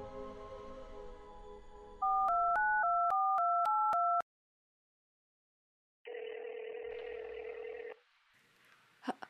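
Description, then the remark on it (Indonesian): A quick run of electronic telephone keypad tones beeps out a number, followed after a short pause by a single loud, steady phone ring tone that cuts off abruptly, leaving near silence. “Oke, okay, aku telepon ya nanti.”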